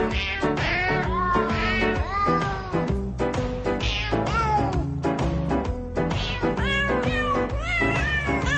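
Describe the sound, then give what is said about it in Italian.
A crowd of kittens from Beijing meowing together, their high overlapping cries rising and falling in a loud, nonstop chorus, with no talking. “Il coro di gattini proveniente da Pechino, gattini che miagolano tanto”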